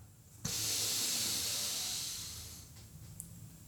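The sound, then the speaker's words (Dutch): A long, deep inhalation drawn in steadily through the mouth for about two seconds, breathy and hissing, then fading off, by a person seated on a chair doing a breathing exercise and pressing on the floor while breathing in; no talking. “En dan een wat langere inademing.”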